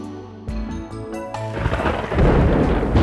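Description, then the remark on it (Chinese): A few short stepped musical notes give way to a loud rainstorm, a dense hiss of heavy rain swelling over deep rumbling thunder that grows stronger toward the end. “下雨了，快收衣服啊！”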